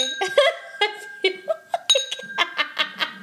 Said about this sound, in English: let's cheers again.